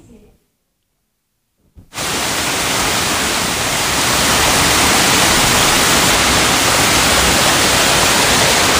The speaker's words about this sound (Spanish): En realidad, más que un río, este que escuchan es un regato situado en Galicia, al noreste de la provincia de Ourense casi en el extremo de la comunidad.